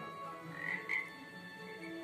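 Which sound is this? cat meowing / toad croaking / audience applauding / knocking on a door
toad croaking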